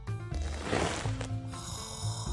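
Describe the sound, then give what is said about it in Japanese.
A man dozing in the back seat of a car after eating his fill snores heavily in a steady rumble, one long rasping breath swelling through the middle before settling back into a low, droning snore. “あいつならたらふく食って満腹になって、後ろで居眠り中だ。”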